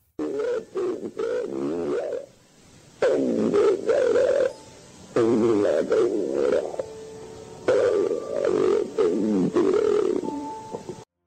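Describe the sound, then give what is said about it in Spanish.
An eerie EVP recording: deep, distorted, growling voice-like utterances come in four loud bursts separated by short pauses, their words unintelligible and almost roar-like. “Esta psicofonía que vamos a colocar ahora, para mí, de las que escuchamos, es una de las más aterradoras.”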